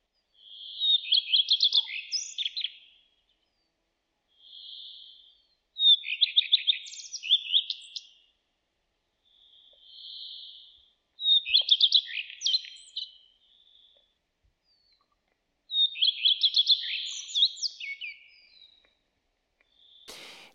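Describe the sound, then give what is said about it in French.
A common redstart sings alone, repeating short two-part phrases: a brief clear note followed by a quick, varied twittering flourish, with pauses between each of about four songs. “le rouge queue à front blanc, c'est un très bel oiseau déjà”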